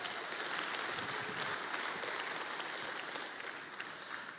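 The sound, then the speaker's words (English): A crowd claps steadily for a group of high schoolers, a dense wash of hand claps that stays loud and even throughout before easing slightly at the end, with no one speaking. “Let's hear it for our high schoolers. They're so awesome.”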